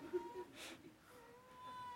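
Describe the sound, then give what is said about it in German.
Faint, thin whimpering from startled babies, a few soft high-pitched cries drawn out over two seconds, heard quietly in the background with no one talking. “Oh, jetzt haben wir die Babys aufgeschreckt.”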